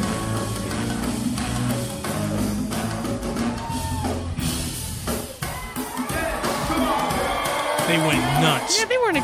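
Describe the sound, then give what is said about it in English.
Concert crowd at DC Pride cheering over loud old-school go-go music, with rising whoops and shouts growing more excited toward the end, a dense, continuous roar of many voices. “It's crowd's about to go nuts.”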